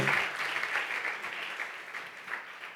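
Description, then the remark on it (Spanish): A church audience applauds the Lord during a Spanish-language sermon, a dense continuous wash of many hands clapping together at an even level throughout, with no one speaking over it. “Dele fuerte ese aplauso al Señor y colóquese en pie.”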